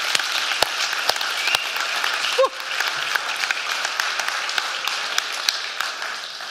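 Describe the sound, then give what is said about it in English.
A church audience applauds steadily, a dense wash of many hands clapping at a constant level, with a few sharper individual claps standing out and a brief whoop-like cry partway through. “You may give them a round of applause.”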